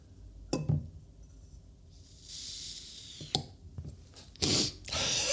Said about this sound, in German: Also ich finde das sehr befriedigend. Das ist ein kleines, ein kleiner Glas, ein, ein Glasbehältnis von der Firma Bodum, in dem ich meine Kaffeepads aufbewahre. Und das hat oben so ein, so ein Gumminupsi, Gummi, Gummi, Ring um den Deckel drum